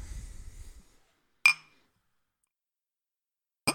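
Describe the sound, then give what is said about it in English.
A short, low splashy pour of Rare Breed bourbon into a glass as a tasting sample, then two sharp, bright clinks of glass separated by a couple of seconds of silence. No one speaks. “So we're going to pour a little bit of this, and we're going to take a sample of chocolate, and we're going to go right on through here.”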